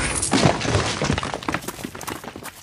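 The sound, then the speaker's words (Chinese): A cracked rock wall is smashed through to break open a way, with a loud, crunching burst of breaking, followed by a scatter of smaller clattering and crumbling debris that gradually thins out. No one speaks. “你说过，就算砸都要砸出一条路来。”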